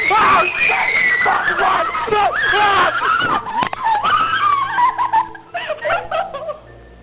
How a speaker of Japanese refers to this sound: 撮影者たちが物音がする方へ向かうと、半透明の何かが襲いかかるようにして、突然現れたんだぜ。映像に入ってる悲鳴がリアルね。私もびっくりしたわ。